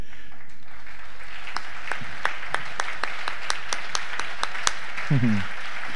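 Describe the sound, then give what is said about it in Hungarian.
A round of applause made of crisp, separate handclaps in a steady rhythm, about a dozen sharp smacks over a few seconds, for attendees from the USA who are asked to stand up, followed by a brief burst of a voice at the end. “Kérem az USA beléket, akik Amerikába jöttetek, álljatok fel egy nagy tapsot, ők jöttek legmesszebbről, jó?”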